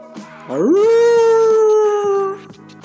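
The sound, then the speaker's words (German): A person imitates a werewolf's howl: one loud, drawn-out wail that swoops upward and then holds a steady pitch for nearly two seconds before cutting off, with no talking. “Es ist Vollmond. Und der Werwolf jault.”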